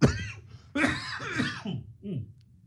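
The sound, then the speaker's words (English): A short fit of coughing, about four harsh, throaty coughs in quick succession, the first ones loudest and the last trailing off into a softer rasp. “Pardon me. Cough ray.”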